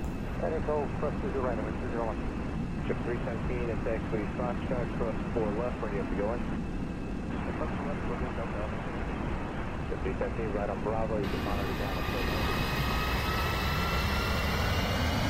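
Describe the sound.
A loud, steady jet engine roar with voices talking over it, then a rising turbine whine as the airliner's engines spool up to full thrust as Alaska Airlines flight 261 takes off from Puerto Vallarta at 14:30.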